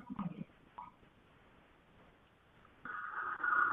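Thin, narrowband phone-line audio of a caller on air, with a hollow echo from the caller's own radio playing the broadcast, brief blips early on, a quiet hiss in the middle, then a louder sustained tone swelling near the end.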